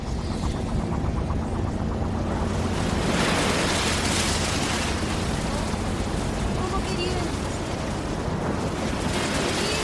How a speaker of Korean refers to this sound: 네모난 유리창을 통해 배기장으로 향하는 다리가 보였다. 다리 밑으로 파도가 거세게 몰아쳤다.